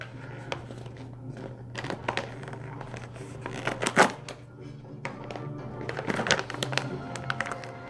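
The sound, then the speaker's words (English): A plastic snack bag of chocolate-covered almonds crinkles and rustles in irregular, clicky bursts over about eight seconds, with a steady low hum underneath. “I got a little snack if you hear some rest, wrestling around here.”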